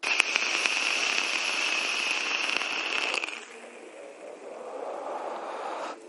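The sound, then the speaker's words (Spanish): A vape coil sizzles and crackles steadily for about three seconds during a draw on a vape fitted with a wide 810 drip tip, then gives way to a softer, breathy rush of air as the vapor is exhaled. “Vamos a dar una calada, la prueba de fuego.”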